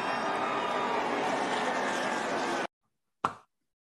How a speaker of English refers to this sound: as you can hear there, the crowd roared for that.